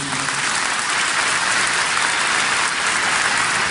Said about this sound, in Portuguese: Você pode aplaudir a Jesus Cristo por isso.